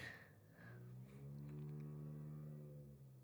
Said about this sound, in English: You just hear that fucking muffler go by.